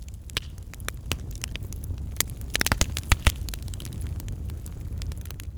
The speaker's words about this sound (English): Hearing the crackle of fire.